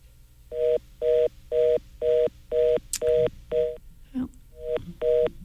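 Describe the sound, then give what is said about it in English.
A rapid run of touch-tone telephone dialing beeps while a phone line is having problems, about nine short, evenly spaced tones, clear and fairly loud, with a brief muffled noise near the end and no talking. “we're having some problems with the phone line”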